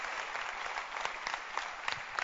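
A crowd applauding steadily, many hands clapping at once in a dense, continuous patter with a few sharper claps standing out, no voices on top.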